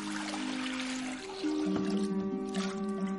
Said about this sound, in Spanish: Vierte agua en una palangana.